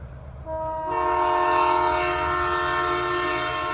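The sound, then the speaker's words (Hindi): A Delhi Metro train heading to Hauz Khas rumbles steadily while a loud, sustained horn blares in over the engine noise and holds to the end, with no voices present. “हम तीनों metro train से हौज खास पहुंचे”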